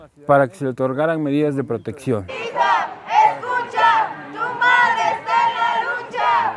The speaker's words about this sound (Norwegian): Datter, hør etter, moren din leter etter deg fortsatt. Det roper kvinner i et protesttog i hovedstaden. Felles for dem er at de leter etter en datter eller en sønn som er savnet.